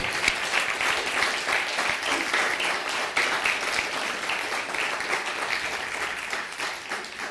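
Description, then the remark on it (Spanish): Loud, sustained applause from a crowd, many hands clapping in a dense steady roar that holds for several seconds without pause, with no voices standing out. “Dale un fuerte aplauso”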